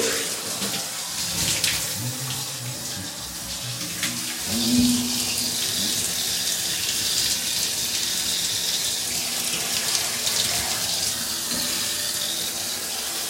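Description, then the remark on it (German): Tap water runs steadily into a basin with a broad, hissy splash while a person washes themselves, its flow shifting now and then as something moves under the stream; continuous with no talking. “Ja, wenn ich natürlich mit der linken Hand mich abwaschen muss und sowas, dann hört ihr mich natürlich kurz nicht.”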